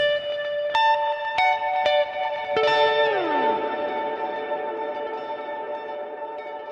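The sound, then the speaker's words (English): A guitar through a ping-pong delay effect set to its longest possible time, its plucked notes repeating and smearing into a sustained wash that bends downward in pitch and keeps ringing without fading out. “It's very long. There you go. Keeps it going basically forever.”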